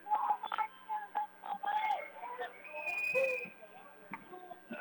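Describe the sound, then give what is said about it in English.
A referee's whistle at a hockey game gives a sustained, piercing blast midway through, stopping play, over the steady murmur of an arena crowd, with indistinct voices underneath. “We got a whistle.”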